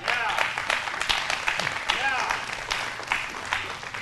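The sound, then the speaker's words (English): Sustained audience applause for six youth ministry team members called up to the front, a dense wash of many hands clapping at once, loud, with a few voices calling out over it. “Give them a hand clap.”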